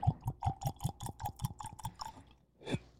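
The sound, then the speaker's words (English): Whisky glugs out of a bottle with a wooden top in a quick, steady run of about a dozen hollow gulps, clear, then stops, followed by one last louder slosh. “Glugs, glugs for days.”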